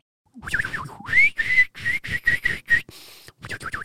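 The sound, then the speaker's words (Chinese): A person whistles an imitation of canary song: a rising swoop followed by a quick string of bright, high chirps in short bursts, fairly loud with brief gaps between notes. “好，那你说你以前有养金丝雀，然后可能年纪太过世，很久没听到的声音，我们就让你听一下金丝雀的声音。”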